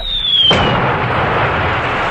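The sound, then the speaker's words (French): A short descending whistle gives way to a single loud explosion, followed by a sustained rumbling roar of debris and noise that fades only slightly over the next two seconds. “C'est à ce moment qu'une explosion projeta plusieurs de ses hommes au loin.”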